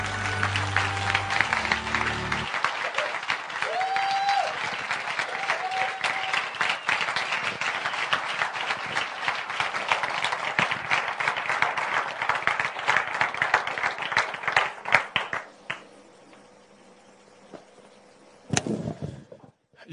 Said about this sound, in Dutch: Dat was onze laatste verhaal. Geef ze maar een applaus.